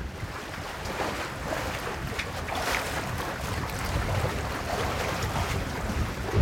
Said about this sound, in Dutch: Ik wil heel even kijken of ik dat water kan laten horen.